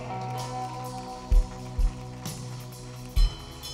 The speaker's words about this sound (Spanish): Dele un aplauso al Señor por ella.